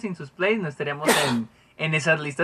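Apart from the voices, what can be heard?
sneeze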